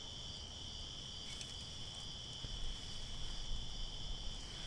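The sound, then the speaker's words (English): Crickets chirp in a steady, continuous high trill, filling a quiet night scene with a soft low rumble of background ambience and no voices. “I bet you the crickets saw it.”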